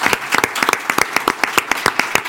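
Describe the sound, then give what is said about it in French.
Audience applause: a crowd claps steadily, many sharp overlapping hand claps forming a dense, fairly loud patter with no voices over it. The applause follows thanks to the teams of Le Figaro and Figaro Immobilier. “Applaudissements.”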